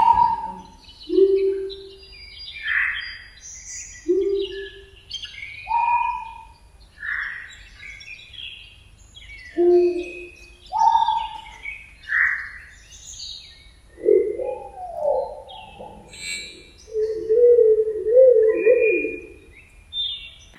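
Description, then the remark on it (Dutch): A dense, layered soundscape artwork of bird calls heard in a room: chirps, whistles and swooping tones overlap continuously, joined by lower, rounded owl hoots that repeat throughout. No one speaks. “Een soundscape, een geluidswerk met vogelgeluiden.”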